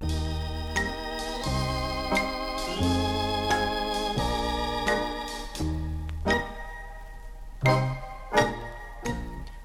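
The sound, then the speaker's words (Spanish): A recorded romantic song plays at moderate volume, with sustained melodic instrumental tones over a slow, steady rhythm of regular strums. No one speaks over it. “Vamos a escucharla.”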